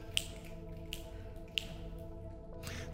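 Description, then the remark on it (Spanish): Three crisp finger snaps, made on a count of three, quick and sharp, spaced unevenly within about a second and a half, over a steady low hum with no one talking. “Nos decía él, en lo que usted hizo tres chasquidos con su dedo,”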